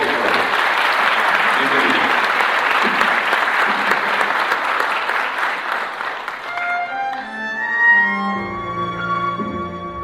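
Loud, dense applause from an audience, steady clapping for about seven seconds before fading as a bright musical tune with sustained notes takes over.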